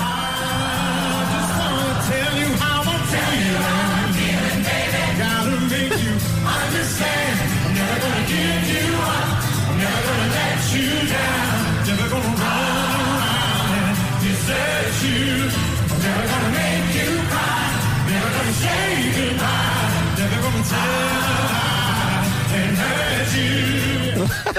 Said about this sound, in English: to hear the crowd not just singing his lines back, but singing harmonies and singing different vocal lines and everything.